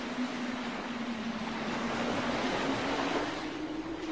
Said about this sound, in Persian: ما معمولا صداشو میشنویم. اما امشب همه چی یه جور دیگه است. باد و دریا بد جوری به جون هم افتادن.